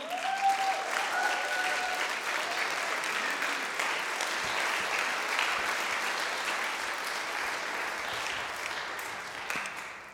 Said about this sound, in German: Wollen wir mal unserem Jesus einen großen Applaus geben, oder?